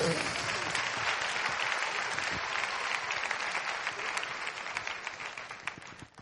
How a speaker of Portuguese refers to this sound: você pode aplaudir isso no nome de Jesus?